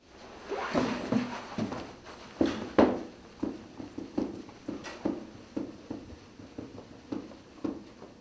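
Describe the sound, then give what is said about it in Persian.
Rapid, uneven thumps and knocks, like limbs jerking and striking a surface during a convulsive seizure in which a person continuously shakes their arms and legs, repeat for several seconds with no voices. “در حالی که برخی دیگه به طور مداوم دست و پاهای خودشون رو تکون میدن و این نیز صدای یک تشنجه”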